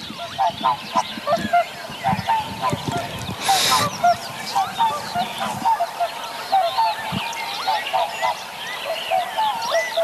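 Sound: swans calling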